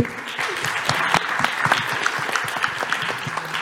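A crowd breaks into steady applause, dense overlapping claps filling the room at a fairly loud, even level for a few seconds, with a few sharper individual claps standing out.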